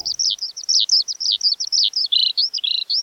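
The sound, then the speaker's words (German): A skylark, barn swallow and song thrush singing together, a dense stream of rapid, high-pitched twittering chirps that runs unbroken, with no voices. “die Rauchschwalbe und Siegfried die Singdrossel ein. Sie sangen gerne zusammen”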